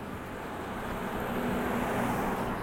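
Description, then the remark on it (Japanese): School buses for the many international schools in the area rumble past on a road, a steady low engine drone that swells slightly louder midway, with no voices over the continuous traffic noise. “すごいさインターナショナルスクールこの辺多くてスクールバスが今すごい通る”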